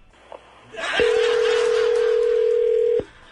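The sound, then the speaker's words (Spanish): A telephone dial tone sounds as a call is being dialed: one steady, mid-pitched hum lasting about two seconds over a hiss of line noise, with a faint brief blip before it. “Vamos a marcar, ya, ya, cállense.”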